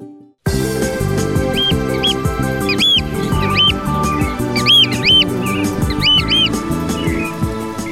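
Repeated high, thin whistling calls of a marsh sandpiper ring out in short clusters, layered over steady, loud instrumental music that plays throughout.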